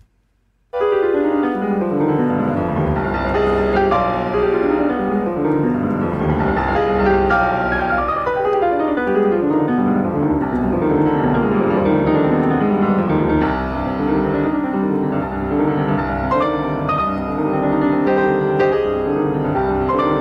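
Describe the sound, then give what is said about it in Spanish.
A solo piano plays loudly and continuously, with fast rippling runs sweeping up and down the keyboard beneath forceful chords, a dramatic, virtuosic study with no talking. “esto es el estudio Opus 10, número 12”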